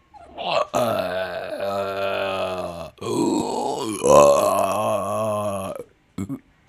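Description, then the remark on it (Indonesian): A voice imitates a male crocodile's grunting call to its mate: deep, drawn-out guttural grunts in two long, loud bursts, then a couple of short rumbles before it stops. “suara dari Pak Aya sedang memanggil Bu Aya gitu.”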